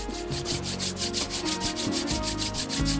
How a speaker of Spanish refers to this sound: Mejor antes de abrir los ojos, frote sus manos.